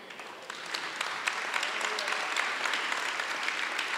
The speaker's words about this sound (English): I wish you would be clapping a little louder. I don't know if you heard what I said.